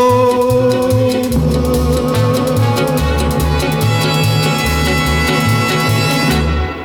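A vintage 1960 French chanson recording plays loud and steady, with a bouncing bass line under dense orchestral accompaniment, then cuts off abruptly near the end.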